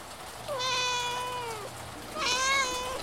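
A trembling, rain-soaked kitten meows twice, each cry a drawn-out, high, wavering call with a slight downward bend, separated by a short pause, over a faint steady background hum with no talking.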